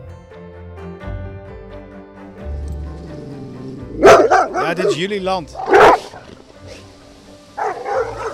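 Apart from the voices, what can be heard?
dogs barking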